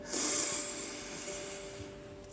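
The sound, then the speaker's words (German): A single long, deep breath drawn in through the nose during a guided breathing exercise, fairly loud, with a hissy airy rush that starts strong and tapers off over about two seconds. No talking. “Dann schließe jetzt deine Augen und nehme mit mir zu Beginn drei tiefe Atemzüge. Wir atmen durch die Nase ein,”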